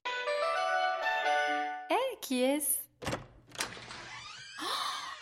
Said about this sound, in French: je vais t'envoyer le meilleur jingle